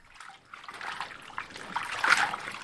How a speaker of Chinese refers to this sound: 清清爽爽的河水好像跳着舞一样从石桥下流过。老人家啪嗒啪嗒的跑回家里，拿了一叠盐巴和一块洗脸毛巾返回来。他下到最低的那块桥石上洗漱起来。